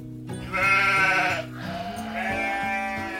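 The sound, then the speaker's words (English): A goat bleats twice in a row, two long, wavering, nasal cries. The first is louder and the second trails on with a quivering tone. No one speaks over them. “Meh, meh, said the goat.”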